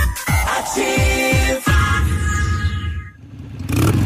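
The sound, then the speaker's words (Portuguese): A driver gives a car engine a final revving before switching the car off: the engine revs hard several times in quick bursts, then holds a high whine before winding down and cutting out, loud with no talking. “Última acelerada. Motoristas que têm esse hábito antes de desligar o carro não sabem que isso só serve para desperdiçar combustível e aumentar as chances de danificar o motor.”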